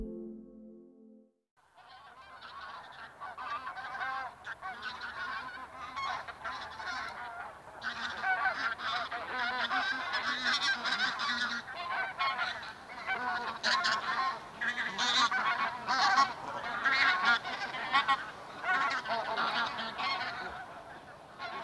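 A flock of bean geese honking continuously, many overlapping nasal calls forming a dense, busy chorus that grows louder after the first few seconds and stays loud throughout, with no talking.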